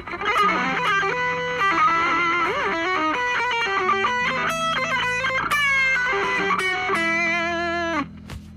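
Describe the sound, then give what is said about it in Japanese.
A distorted electric guitar plays a winding, oriental exotic-style melodic phrase with bends and quick runs over a sustained low note, loud, then stops abruptly near the end. “こういうなんかちょっとオリエンタルエキゾチックフレーズとかも織り交ぜつつっていううに私はやってますんでまあこれが合うのはメタルとかでしょうけどね”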